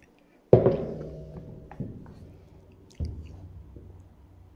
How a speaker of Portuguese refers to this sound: Tomar um golinho d'água, meus irmãos, que o assunto é interessante.